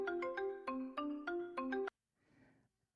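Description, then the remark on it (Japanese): A gentle electronic alarm melody from a countdown timer app plays a quick run of bright, chiming notes for about two seconds, clear, then cuts off, leaving only a faint, soft murmur. “そして、ああ、優しい感じですね。なんか鳥が飛んできそうなメロディーですね。”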